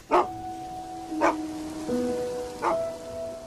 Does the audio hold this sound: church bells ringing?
no